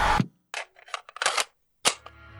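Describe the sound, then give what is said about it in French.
A sharp gunshot cracks out at a concert, followed by several more quick, snapping bursts at uneven intervals, each loud with short ringing tails, and no voices. “Il prenait son élan pour lancer sa première salve de hurlements quand une détonation retentit.”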